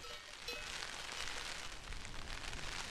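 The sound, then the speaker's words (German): Steady rain patters, a dense, continuous drumming of drops on an umbrella, with no voices, during a walk up a hill with a cross above the village of Hindelang in the Allgäu. “Stattdessen trommeln Regentropfen auf den Schirm.”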